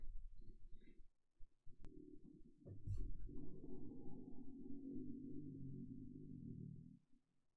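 A cockchafer's low, droning buzz swells, holds steady for several seconds, then fades as the beetle flies past. No one speaks.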